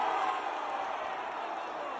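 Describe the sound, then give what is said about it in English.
A large crowd of fans lets out a collective groan, a dense, sustained wash of many voices at steady volume, filling the whole moment. “And I love I love how you, you can hear the fans going oh oh after.”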